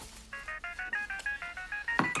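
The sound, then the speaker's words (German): A mobile phone rings with an incoming call, its bright electronic tone playing a rapid, regular series of short melodic beeps, fairly loud, as a woman drying a soup plate in her kitchen-living room looks at the display; it stops with a couple of quick clicks or bumps as she rejects the call. “Sie schaut auf das Display ihres Handys. Ein Anruf von Gundi. Moni drückt den Anruf weg”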